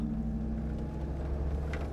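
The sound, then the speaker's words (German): A car drives to the train station in Innsbruck in the morning, with a steady, low engine rumble and road drone that stays even throughout, with no voices. “uns mit dem Auto bis zum Bahnhof nach Innsbruck gebracht.”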